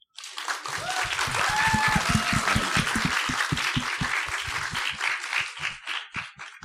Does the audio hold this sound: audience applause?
yes